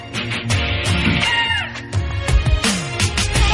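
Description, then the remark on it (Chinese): At the very start of a song, a woman's high, wailing scream rises and slides in pitch over a loud, dense musical backing, with several strained cries breaking through the instruments. “你看这歌曲刚开始啊，大家就听到这一个女生的惨叫。”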